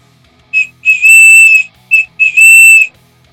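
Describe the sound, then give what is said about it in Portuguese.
A historically attested ancient bird-call whistle blown twice in a matching pattern: a short chirp, then a longer warbling tone, shrill, with no talking. “Esse aqui é um apito de pássaro, né?”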